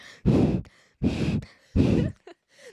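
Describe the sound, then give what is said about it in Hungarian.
Three heavy, loud breaths blow straight into a microphone in a steady rhythm, each a rough, windy gust with short quiet gaps between them. “ne szuszogj bele, ne szuszogj bele a mikrofonba, így minden zár,”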